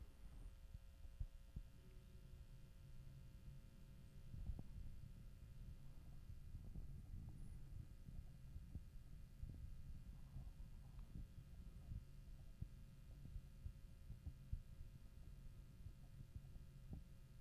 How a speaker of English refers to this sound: All right. Yeah. The heat kicked in on that one.